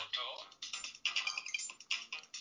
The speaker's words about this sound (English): silence that phone.